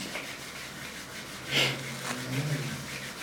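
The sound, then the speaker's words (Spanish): Palms rubbed briskly together, making a soft, steady swishing friction that swells into a stronger burst partway through. No one speaks. “Vuelve a frotar vigorosamente tus palmas.”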